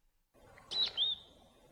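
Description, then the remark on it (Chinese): A robin calls twice in quick succession, two short, high, clear chirps with a slight downward whistle, answering a boy's imitation of a robin call by a bush, standing alone over faint background hiss. “知更鸟凝神听了几秒，然后像回答问题似的回应起来”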